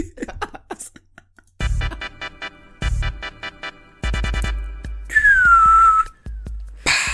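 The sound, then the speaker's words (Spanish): A short, breathy whistle slides downward in pitch for about a second, wavering and unsteady like a failed attempt, surrounded by loud bursts of clattering, buzzing noise. “No sé, cómo chiflar bien, cerote.”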